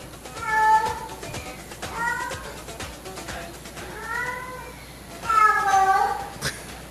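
cats yowling

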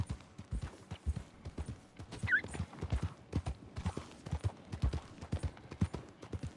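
horse hooves clip-clopping

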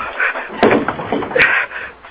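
door being opened

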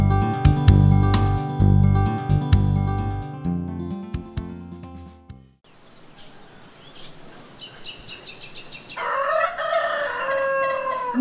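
birds singing

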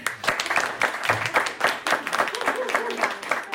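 group applause

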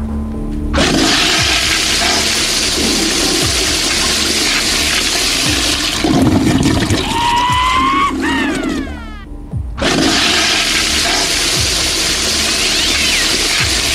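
toilet flushing

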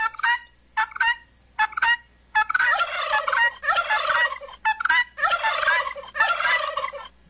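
turkey gobbling

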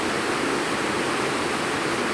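rain falling

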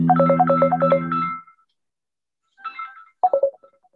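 mobile phone ringtone ringing

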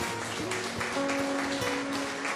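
audience applauding

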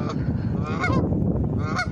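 ducks quacking

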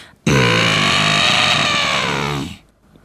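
elephant trumpeting

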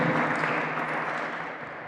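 audience applauding loudly

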